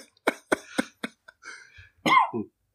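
A harsh fit of coughing picked up by a microphone: four sharp coughs in quick succession, then raspy, strained breathing and a choked, wheezing gasp as a man chokes and struggles for air.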